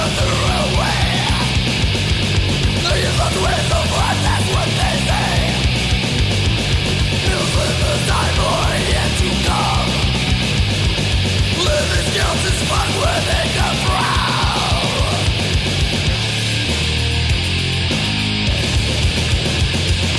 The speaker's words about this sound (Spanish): Y ahora la parte más brutal que aporta el death metal.